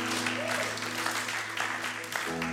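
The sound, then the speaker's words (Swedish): An audience at Pingstkyrkan in Skövde bursts into sustained applause for Jesus, a dense steady wash of many hands clapping at once, fairly loud, with a low hum underneath throughout. “Det, ge en rejäl applåd till Jesus.”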